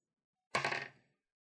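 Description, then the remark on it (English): Dice clatter briefly across a hard surface, a single bright rattling burst that fades within half a second, with no voices. “Should I roll for you?”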